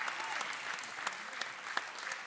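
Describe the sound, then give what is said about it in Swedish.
An audience applauds, a steady wash of many hands clapping with a few sharper claps standing out, sustained at moderate loudness throughout with no voices. “Vad sa jag om applåden? Om en applåderar, alla applåderar bror!”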